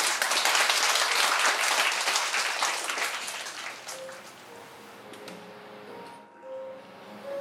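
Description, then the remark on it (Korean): An audience applauds to welcome writer Kim Sun-woo, with dense, steady clapping that gradually thins and fades over several seconds, ending in quieter scattered claps and faint background murmur. “자 일단은 박수로 김선우 작가님 모시겠습니다.”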